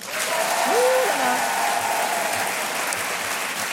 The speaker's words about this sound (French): On va le voir tout de suite. Par applaudissement, qui est pour